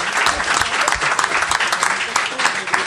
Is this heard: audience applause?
yes